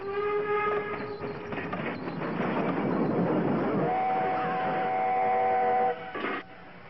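train rolling on rails

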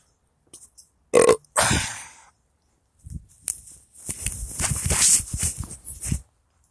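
fart

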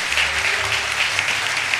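audience applauding

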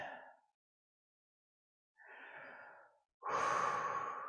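deep breathing

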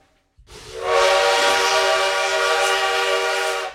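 train travelling on rails

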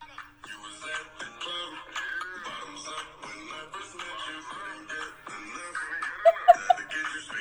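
song playing

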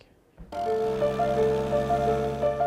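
applause

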